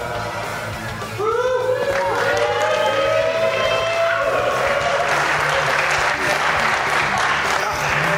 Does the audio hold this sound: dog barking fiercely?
no